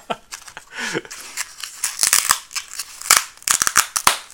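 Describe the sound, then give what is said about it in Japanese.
A natto pack is opened and handled, with crisp plastic crinkles and rustles coming in irregular bursts of sharp clicks and crackles, loud, with no one talking. “納豆食べよう 納豆があるから納豆食べようこのさ納豆ってさ納豆の音でさどうかな ASMR になるかな”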